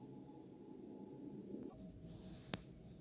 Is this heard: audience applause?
no